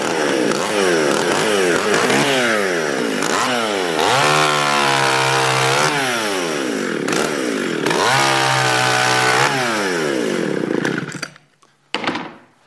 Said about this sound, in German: Ja, wunderbar. Die Säge funktioniert. Jetzt werden möglicherweise alle diskutieren und sagen, oh, guck mal, mitten im Gottesdienst eine Motorsäge und so weiter.